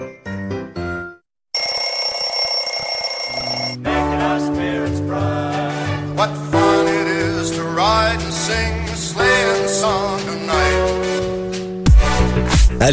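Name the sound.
alarm clock ringing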